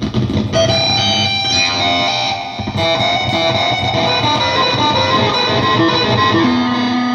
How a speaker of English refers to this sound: Sounds more, more like it's like a fuzz mixed with now. a ring mod.